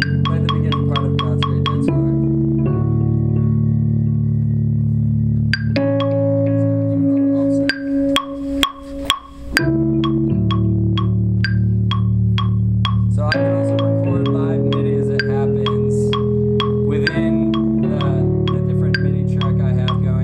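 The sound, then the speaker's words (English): An electronic keyboard set to an organ sound plays sustained chords that shift every couple of seconds, with crisp rhythmic clicks on top, fairly loud with no talking. “and he plays to the keyboard.”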